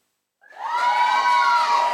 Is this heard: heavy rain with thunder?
no